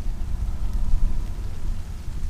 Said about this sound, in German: Ich glaube, wir kommen in den Regen. Es beginnt zu tropfen. Vielleicht sollten wir nicht unter dem Baum sitzen, wenn ja. es dann allenfalls kommt.